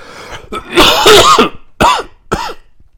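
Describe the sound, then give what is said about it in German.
A loud coughing fit: a rough throat-clearing burst followed by two sharp, separate coughs, with raspy, strained bursts and no talking. “Ja, ähm, schlimm mit dem Husten wieder, aber wir machen weiter.”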